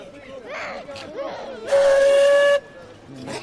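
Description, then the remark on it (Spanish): A loud, steady whistle blast lasts close to a second, cutting through the murmur of a crowd with voices calling out around it at a busy train platform, as a group of children is moved toward the train. “Vuelve a sonar un silbato.”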